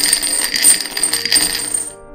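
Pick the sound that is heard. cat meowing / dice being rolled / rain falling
dice being rolled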